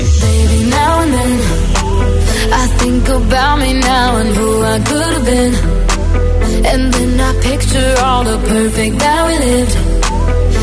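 An upbeat pop song plays at full volume on the radio station Hit FM, with a lead singer's melodic vocals over a driving, steady beat and dense synth backing that continues throughout.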